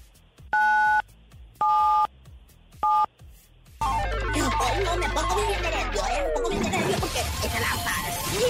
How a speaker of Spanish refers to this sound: Oye, entonces presiona en tu teléfono 977.